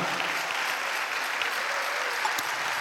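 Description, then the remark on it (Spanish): An audience at a Spanish-language church service bursts into steady, sustained applause for the Lord, many hands clapping together in a dense, even wash of sound that holds at a constant level for a few seconds, with no voices standing out. “Dale un aplauso al Señor por eso, amado hermano.”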